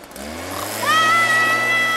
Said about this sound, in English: And I said, Oh, don't wake my brother up with a leaf blower?